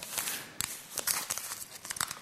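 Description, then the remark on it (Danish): A fine, white, blank sheet of paper is crumpled up, with a steady run of crisp, crackling crinkles and a few sharper snaps over a couple of seconds. No one speaks. “Man kunne sige det på den her måde, at det var det fine, hvide, blanke stykke papir”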